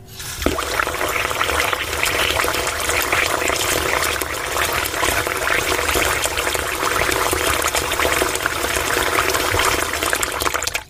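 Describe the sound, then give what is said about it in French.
Water runs steadily from a tap, a continuous rushing and splashing that holds an even level for about ten seconds with no voices. “Le cycle de l'eau s'effrayait un autre chemin pour arriver à notre robinet.”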